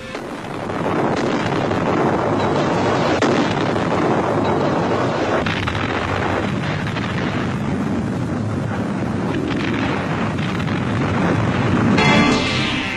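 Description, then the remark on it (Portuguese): A tremendous explosion destroying the cities of Sodom and Gomorrah roars into a loud, sustained rumble that churns on for over ten seconds, dense, with no voices. “As florescentes cidades de Sodoma e Gomorra foram destruídas com um único golpe. Uma tremenda explosão.”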